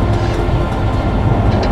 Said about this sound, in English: stop this train. There's an emergency switch to kill the power.